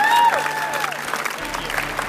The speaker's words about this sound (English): Let's give him a round of applause.